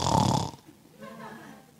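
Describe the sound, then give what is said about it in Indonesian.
A person briefly mimics a husband snoring with a loud, raspy snort lasting about half a second, followed by quieter voiced murmuring. “Jangan anak pergi kerja, suami pergi kerja masih ngorok.”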